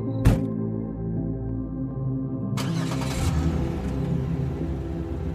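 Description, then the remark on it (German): A sharp click or thud as a car door is shut on a cool night, then the engine of a car with tinted windows and a separate driver compartment rumbles steadily before revving up as it pulls away, the low drone rising and continuing to the end. “Steig schnell ein und schließ die Türe, damit die kühle Nachtluft nicht mit hereinströmt.”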